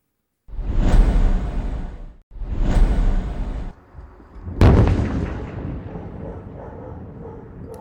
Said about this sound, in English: Loud explosions in northern Gaza today as Israel's defense minister said that Hamas's last strongholds there are surrounded.